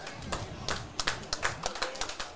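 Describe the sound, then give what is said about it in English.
A stadium crowd at a Warriors match claps steadily as the players go into the tunnel for the half-time break, many hands producing a dense patter of sharp, irregular slaps at moderate loudness, with faint crowd murmur underneath. “Both sides a nice, healthy little clap off.”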